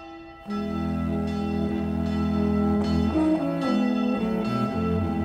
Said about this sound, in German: Er hat für Kirchenglocken Musik geschrieben.